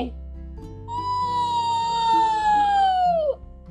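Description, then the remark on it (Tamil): A person imitates a fox howling while telling the Tamil fox-and-crow tale, holding one long, steady wail for a couple of seconds that slowly droops in pitch before cutting off, fairly loud over a low background hum. “அப்படின்னு ஊழையிட்டுட்டே வந்த நரி”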